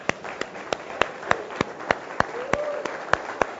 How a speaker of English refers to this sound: Let's give a round of applause to the two who raised their hands, huh?